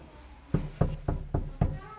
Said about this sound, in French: Un vieil homme, avec une canne, en descendit. Il frappa à la porte du fermier